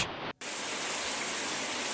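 Shower water runs in a loud, steady hiss, broken by a very short silent gap near the start before the spray continues unchanged.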